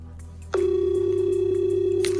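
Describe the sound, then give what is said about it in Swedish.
A single steady ringing tone from an outgoing phone call placed by a Dagens ETC reporter to a friend, a Swedish volunteer soldier in Ukraine's army, one clear buzzing beep lasting about a second and a half over a faint low hum with no one speaking. “Dagens ETCs reporter Kristoffer Röstlund Jonsson ringer upp sin vän”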